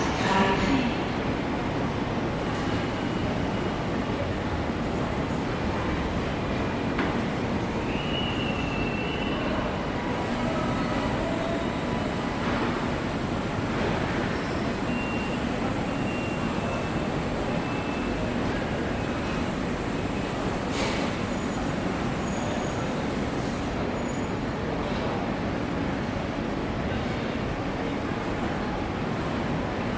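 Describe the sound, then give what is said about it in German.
A train pulls away from platform 13 of a station in a steady, loud rumble of wheels and machinery that runs unbroken throughout, with a brief high squeal partway through. “Vorsicht, der Zug fährt ab.”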